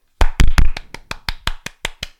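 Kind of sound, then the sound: human body sound, hand clapping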